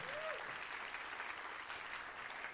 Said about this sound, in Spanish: ¿Cuántos dicen amén? Denle un aplauso fuerte, Señor, si usted lo recibe.